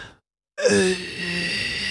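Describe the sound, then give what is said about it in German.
After a brief silence, a deep, deliberate exhale during a breathing exercise begins abruptly, breathy with a faint voiced, moan-like edge, sustained steadily at moderate loudness. “Und wir atmen ein. Nee, nee. Und wir atmen aus.”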